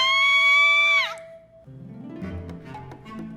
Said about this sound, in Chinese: 直到有一天早上，客厅里传来妮可的尖叫声：“啊！”